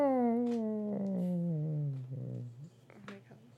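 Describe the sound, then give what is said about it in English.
A person's voice imitates a cat, drawing out one long meow that slides downward in pitch, followed by a few softer, shorter vocal noises. “was waiting for you to stop meowing so I could say that.”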